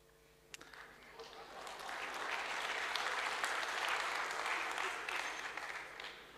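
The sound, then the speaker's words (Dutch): An audience breaks into applause for Gwendolyn Rutte during a political discussion, a dense wash of clapping that swells within a couple of seconds and holds steady, with no voices rising above it. “Een applaus voor Gwendolyn Rutte, dat is geen evidentie.”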